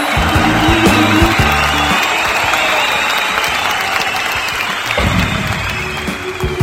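Loud, sustained audience applause on the radio program Cuentos para Soñar, Cuentos para Vivir, broadcast from Atlacomulco on Cucu TV for Radio Pasión. A dense wash of clapping fills the whole stretch, with a few musical tones underneath at the start and again near the end.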